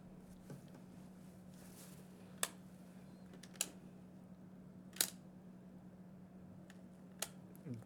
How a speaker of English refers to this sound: I don't like the sound. I don't like all those doors closing.